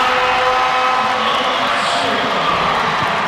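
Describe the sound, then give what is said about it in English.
A basketball crowd cheers in a loud, steady roar of many voices that holds without a break for a few seconds, as the Raiders cut the score to three, 40 to 37. “And here comes the crowd.”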